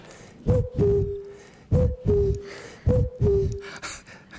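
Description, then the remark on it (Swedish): A common cuckoo calls three times in a steady rhythm, each a clear two-note "cu-coo" with the second note slightly lower, fairly loud, over a soft outdoor background. “Vet du vad det är för en fågel då, Elinor? En gök.”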